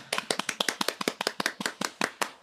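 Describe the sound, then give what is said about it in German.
Hand clapping to congratulate Michael van Gerwen on his seventh Premier League title, in a quick, steady run of sharp claps, roughly a dozen or more sounding in a row, fairly loud and with no talking over them. “Kleinen ja. Applaus, komm.”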